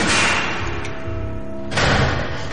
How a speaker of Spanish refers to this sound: Una puerta se abre y entra el siniestro secuestrador.